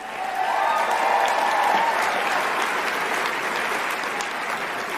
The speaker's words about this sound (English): And finally, everybody give another round of applause for my pal, Lieutenant Governor Mandela Barnes.